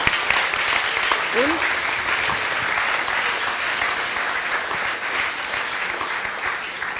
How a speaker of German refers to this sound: Vielleicht können wir kurz nochmal Danke sagen und Applaus dafür.